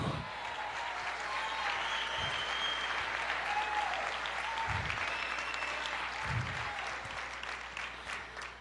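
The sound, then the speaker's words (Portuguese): An audience claps steadily for several seconds, a dense and fairly loud wash of applause with a few low thumps scattered through it and no voices standing out. “Aplauda mais, diga eu creio, eu creio.”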